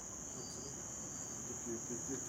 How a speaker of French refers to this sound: Et la nuit tombait, les grillons chantaient de plus en plus.